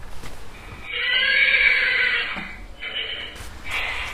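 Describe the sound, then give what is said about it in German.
A doorbell at a former disco plays a recorded horse whinny: a loud, wavering, high-pitched neigh lasting over a second, followed by shorter snorting bursts, with no talking over it. “Das ist für eine Klingel, ey.”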